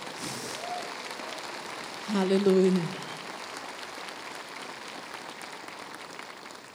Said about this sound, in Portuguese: Aplauda esse Deus maravilhoso.